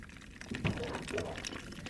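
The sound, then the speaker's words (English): Water pours steadily from the spout of a kitchen water cooler topped by a large five-gallon jug of water into a cup, a gurgling, filling sound lasting a couple of seconds, with a faint voice murmuring underneath. “I'm in the kitchen at Living on Earth right now, standing in front of the water cooler”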